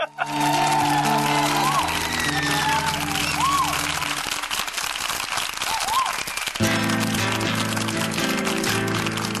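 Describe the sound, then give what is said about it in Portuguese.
A dense, steady wash of audience applause runs the whole time, with rising whistles and cheers scattered through it and sustained low musical tones underneath. “queria pedir para a plateia é, para segurar as palmas, porque é um momento de muita concentração.”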